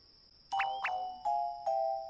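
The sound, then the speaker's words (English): Bells are shaken, ringing out in four bright, clear strikes, each tone lingering before the next, fairly loud, with a faint steady high whine underneath and no voices. “He shook the bells again.”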